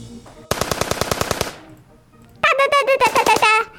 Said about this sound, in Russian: Это выстрел из автомата? Верно. А из какого? М-м, не могу знать, капитан Дина. Эх, Проша, это автомат Калашникова.